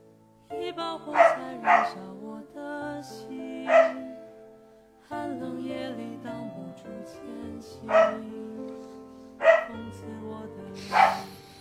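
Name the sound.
dog barking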